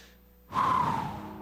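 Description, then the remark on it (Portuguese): A single deep inhale drawn in through the nose after a brief quiet moment, airy, with a faint whistling edge that fades over about a second. “Eu estou respirando.”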